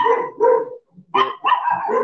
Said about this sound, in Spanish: ¡Puta madre, pinche perro!